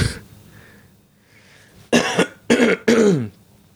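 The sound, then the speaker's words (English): Three sharp, loud coughs in quick succession from a person getting over a cold, after a brief quiet lead-in with a faint breath; the final cough trails off with a slight rasp. “I'm fucking getting over a cold, so I apologize for uh, those coughs and shit that that uh, are probably gonna be unavoidable in this episode.”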